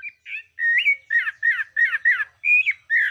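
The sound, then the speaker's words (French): A clay-colored thrush (yigüirro) gives a run of strident, squawking calls, about eight harsh slurred notes in quick succession, loud with no talking. “Alors, pour une autre raison aussi, c'est qu'il a une particularité, nous allons l'écouter, il a une voix qui pas, bon, pas spectaculaire, mais vous allez voir, écoutons le Yigiro.”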